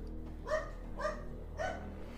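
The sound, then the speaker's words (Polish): A dog barks three times at a steady pace somewhere in the city, over a constant low hum of background city noise. No one speaks. “Gdzieś ujada pies w tym całym zgiełku miasta”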